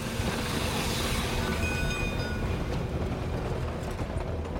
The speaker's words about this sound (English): The bell jangled and the you know, siren whistled, and the train pulled out of the station and was gone.